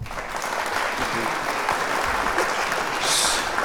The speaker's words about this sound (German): hast du schon mal Applaus gekriegt